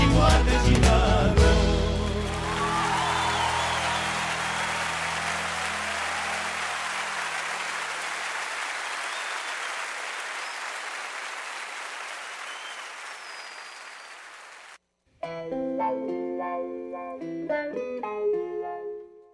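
Long, steady applause that gradually thins out, followed by a short burst of lively folk music, a chacarera, with plucked and sung melodic lines entering after a brief pause.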